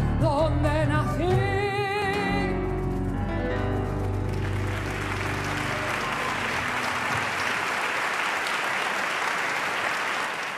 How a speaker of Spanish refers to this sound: Podemos escuchar los aplausos aquí en el Teatro Colón. Ahí los tenemos.